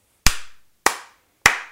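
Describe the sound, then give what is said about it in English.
Three sharp hand slaps, evenly spaced about half a second apart, each a crisp smack followed by a short ringing decay, with no voices. “Three slaps and a new. It's an easy call. It's an easy three slapper.”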